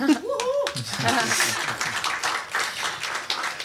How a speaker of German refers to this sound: Klatschen, klatschen, klatschen.